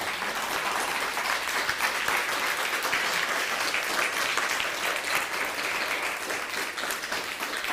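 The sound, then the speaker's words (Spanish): Sustained applause from an audience for the Blessed One at the end of a spiritual talk, a dense, steady clatter of many hands clapping at a constant loudness throughout, with no voices standing out above it. “Dale un fuerte aplauso al bendito ser”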